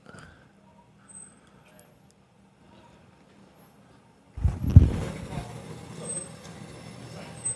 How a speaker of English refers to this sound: This is not from this weekend, I was like last week or something. Gervonta Davis rolled up in this badass truck.